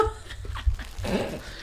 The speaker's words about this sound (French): C'est mon chien.